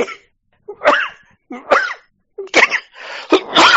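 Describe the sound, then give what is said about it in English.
A loud coughing fit: five or six harsh, raspy coughs in quick succession, arriving in bursts with short gaps that tighten toward the end, with no talking. “oh man, I got a coughing bounce.”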